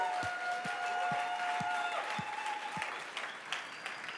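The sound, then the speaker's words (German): A church audience applauds its Dream Teams volunteers, who serve every Sunday. The applause is steady, a dense wash of many hands clapping, with a few louder individual claps thumping rhythmically and a faint sustained tone underneath. “Und können wir doch mal allen Dream Teams einen riesen Applaus geben, allen, die jeden Sonntag dienen.”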